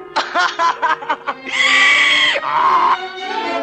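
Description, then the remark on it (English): A quick series of choppy laughing bursts gives way to a loud, drawn-out braying cry that breaks into a second honk, like a donkey's hee-haw voiced by a person. “hey, you laugh like a donkey.”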